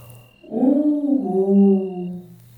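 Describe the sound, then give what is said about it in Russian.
A voice imitates an eagle owl's "Ugu!" hoot echoing back from a well: one long, low, wavering "oo" sound lasting about two seconds, sliding slightly downward in pitch, over a faint steady hum. “Филин взгромоздился на сруб колодца и снова крикнул «Угу!» И колодец в ответ гулко”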